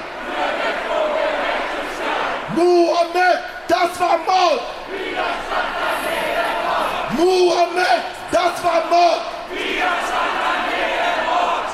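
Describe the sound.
A protest crowd at a demonstration in Dortmund over the police shooting of 16-year-old Mohamed Lamin Drameh chants a short slogan in unison twice, loud, rhythmic and shouted together, with a steady murmur of crowd noise filling the gaps between the chants.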